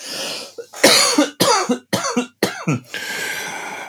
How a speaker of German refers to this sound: Wir nutzen diesen äh, Huster für den Werbeblock.